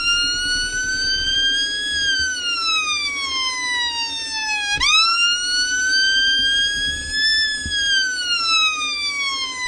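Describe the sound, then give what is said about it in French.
A violin mimics a police siren with a loud, sustained tone that slowly rises and falls in a wailing sweep, swooping sharply low midway before climbing again. No one speaks. “Une moto sirène de police.”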